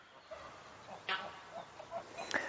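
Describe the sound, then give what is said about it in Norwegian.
A hen gives soft, scattered clucks at an uneven pace near her chicks, which are about three or four days old, with a couple of sharper, higher calls mixed in. Everything sounds fairly quiet, with no talking. “Så vi får håpe hun er flink til å passe på dem, at ikke de kommer og måker og sånn og tar kyllingene.”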